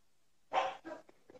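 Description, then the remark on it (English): A dog lets out a quick series of two or three sharp barks, the first loudest, after a brief moment of quiet. “Like, uh, can you show us your dogs?”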